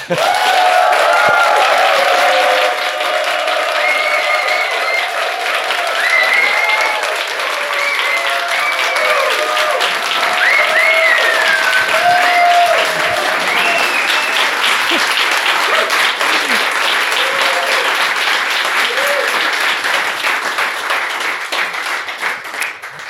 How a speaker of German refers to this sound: wollen wir schon mal einmal einen Applaus aufzeichnen. Dann kann ich den nämlich überall drunter legen und dann sind die Hörer alle total mitgerissen, was hier für eine Stimmung herrschte. Also, zeigt mal, was ihr könnt. 3, 2, 1.